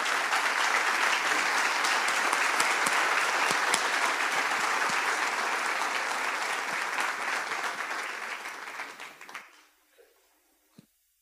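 An audience applauds steadily for about nine seconds, a dense wash of many hands clapping at once, before it thins out and stops abruptly, leaving near silence.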